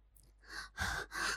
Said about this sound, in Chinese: 兰花仙子表面上无声动静，暗地里却不由喘息不止。可敌人已在眼前，又岂能示弱？就连喘气都不敢大声。